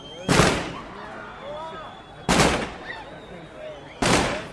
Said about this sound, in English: Uniformed Palestinian soldiers and policemen leading the funeral procession led off a ceremonial burst of gunfire.